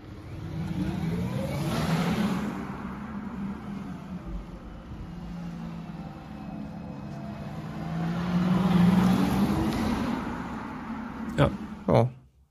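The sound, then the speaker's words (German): An Audi Q4 e-tron electric SUV drives by with a steady low hum and rising and falling whine, swelling twice as it passes, followed by a couple of sharp clicks near the end. “Audi Q4 e-tron”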